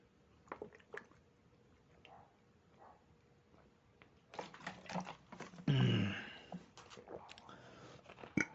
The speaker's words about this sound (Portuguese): Deixa eu pensar por um instante, eu vou tomar mais um gole da minha água enquanto isso.